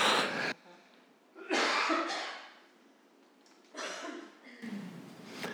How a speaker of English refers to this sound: Hang on, I'm just going to go on mute while I have a good cough.